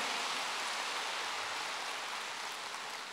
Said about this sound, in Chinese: 鼓掌。